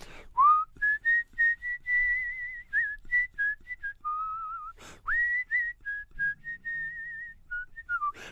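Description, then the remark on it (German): Someone whistles a song melody, a series of clear, sustained high notes with small pitch steps and brief breaks between phrases, fairly loud with no talking. “habe ich immer vor mich hergepfiffen und immer dieses Lied”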